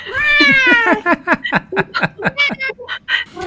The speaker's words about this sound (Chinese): 什么声音？ 猫咪。